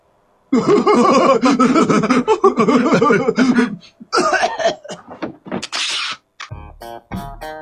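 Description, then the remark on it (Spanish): In The Simpsons, a Japanese man sneezes loudly into a box bound for Springfield. Strained, sputtering vocal noises build up first, then comes a sharp, breathy burst, followed by a few short sounds after it. “en el audio que escuchábamos, es un japonés que estornuda dentro de una caja que va directo a Springfield y adentro de ella, además del virus, hay extractores de jugos que compró mucha gente en Springfield”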